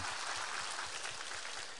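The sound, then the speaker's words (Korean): An audience claps together in steady, dense applause to give glory to God during a church worship service, a broad crackling wash of many hands that holds at an even level for a couple of seconds with no voices over it. “할렐루야 이 공간 가운데 함께 하시고 우리 예배와 찬양의 이유 되시고 대상 되신 우리 하나님께 큰 박수로 영광 올려드리겠습니다.”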